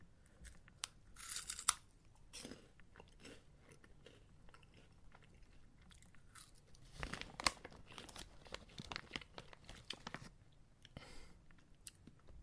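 Snacks being eaten: bursts of plastic packaging crinkling and tearing, mixed with crunchy bites and chewing. The sounds come in irregular, fairly quiet spurts with no talking.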